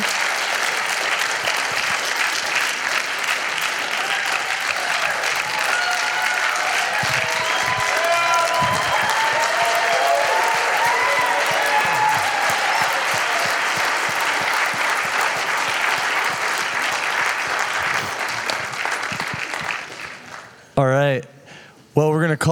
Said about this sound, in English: Thank you guys for coming. I hope that you clap like that for me when I walk off the stage in a second.